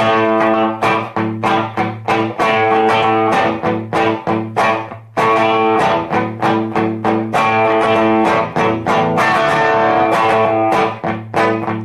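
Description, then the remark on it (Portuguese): Loud, dry hard rock with distorted guitars locked into a tight, syncopated funk groove and punchy drums, briefly dropping out midway before the riff crashes back in. “E aí eles voltam a essa coisa seca, que é, que é isso aqui, ó, não, não, tem nem muito reverb.”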